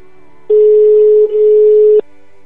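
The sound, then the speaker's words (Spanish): A steady electronic ringback tone sounds on an outgoing phone call made from Cachis y Flamenco Radio, one long beep of about a second and a half with a brief dip partway through, then cuts off abruptly into quiet. “A ver si nos coge el teléfono.”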